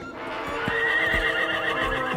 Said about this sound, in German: mal entstehen beinahe hörspielartige Szenen, wie hier. Da wiehern Pferde und eine Sprechstimme schaltet sich ein.